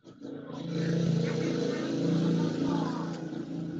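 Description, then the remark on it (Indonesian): A motorbike engine drones loudly and steadily, its low rumble holding for a few seconds as an ordinary motorbike rolls past. “Berisik amat, Cuk. Lewat, cuk motor biasa.”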